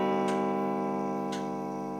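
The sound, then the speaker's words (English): A clock ticks twice, about a second apart, at midnight, over a steady, sustained ringing tone rich in harmonics, as twelve chimes mark the hour. No one speaks. “twelve chimes. It's midnight.”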